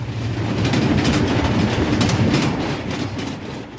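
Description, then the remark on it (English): A rapid steam train thunders past, a loud, steady roar with a deep rumble and a rhythmic clickety-clack of wheels running throughout, with no voices. “When such vapor as rose to my height from this rapid train had passed me and was skimming away over the landscape, I looked down again and saw him refurling the flag that he had shown when the train went by.”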